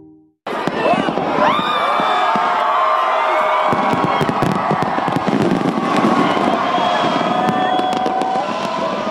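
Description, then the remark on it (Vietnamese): Loud fireworks crackle and boom continuously while a large crowd of over a million people cheers and shouts, whistling rockets and sharp bursts layered over a dense roar of voices, during a 12-minute midnight fireworks display centred on Sydney Harbour, Australia. “đồng hồ điểm nửa đêm ở Úc, hơn một triệu người theo dõi màn bắn pháo hoa kéo dài 12 phút tập trung vào cầu cảng Sydney.”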